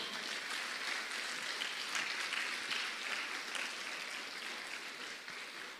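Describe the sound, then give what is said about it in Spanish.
An audience at a church service claps steadily and loudly for several seconds in praise of the Lord, a dense, even wash of many hands with no pauses and no talking over it. “Si usted lo cree, se lo da fuerte al Señor.”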